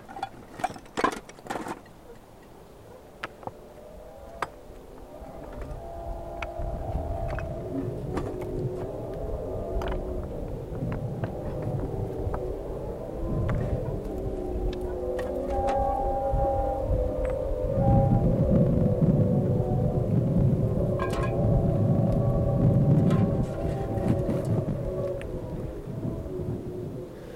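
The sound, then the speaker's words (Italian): Wind blowing past a dry stone wall on a windy day: a steady, deep rumbling roar with faint high whistling tones drifting above it, swelling louder in the second half, with a few sharp knocks at the start. “se vi mettete dietro a un muretto a secco quando c'è una bella giornata di vento, di fatto è un paesaggio sonoro anche quello.”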